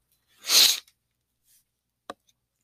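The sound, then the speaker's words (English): One big, loud sniffle right into a microphone, a sharp breathy hiss lasting about half a second, followed by quiet and a single brief click. Nobody speaks. “I just give you a big sniffle right into the fucking microphone.”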